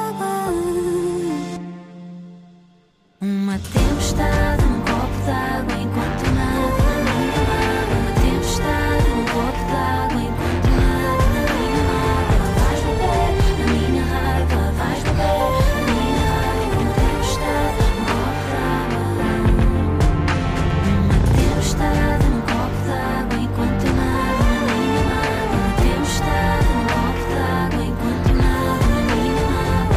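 After a brief fade and a moment of silence, a full, loud pop song kicks in and plays steadily with a dense band arrangement and a driving beat through to the end.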